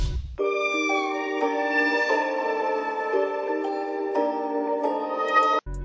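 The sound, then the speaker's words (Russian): A sustained, harmonically rich melodic sample for a beat plays on its own in its original key, chords shifting every second or so at steady loudness, with no drums and no talking, before cutting off abruptly. “Изначально сэмпл звучал в такой тональности.”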